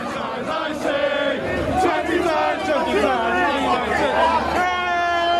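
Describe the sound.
A large crowd of protesting football fans outside Old Trafford roars and chants continuously as many storm into the stadium, many voices shouting and singing together in a dense, energetic din.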